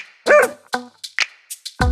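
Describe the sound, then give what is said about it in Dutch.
A dog named Ragna barks several times in quick, uneven succession, mixing sharp yips with a fuller bark, fairly loud, with no one talking. “mijn hond die noemt Ragna.”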